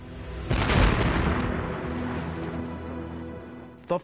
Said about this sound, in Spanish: Pensaban que la explosión mataría al presidente y a sus ministros, llevando el liderazgo de Estados Unidos al caos en un momento crítico, justo durante los últimos meses de la guerra.